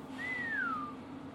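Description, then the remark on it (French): A man gives a single short whistle at his assistant as she passes his office door at a factory, gliding downward in pitch, clear, lasting under a second over a faint low hum, with no talking. “Aujourd'hui, il a décidé de siffler à chaque fois que son assistante, Madame Résilience, passe devant sa porte.”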